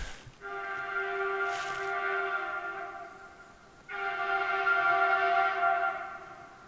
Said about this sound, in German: Also das ist in der Nähe vom Bahnhof tatsächlich und wenn ein Zug zweimal so energisch pfeift, hat das nichts Gutes zu bedeuten. Meistens.